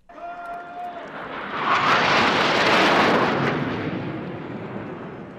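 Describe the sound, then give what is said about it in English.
French Air Force military jets roar overhead, concluding a ceremony at Vimy Ridge, France, in a broad, rushing wall of noise that swells to a loud peak midway and slowly fades, with a faint tonal whine at the start. No one speaks. “Well, you can hear there the flyover from the French Royal Air Force concluding the ceremony here at Vimy Ridge.”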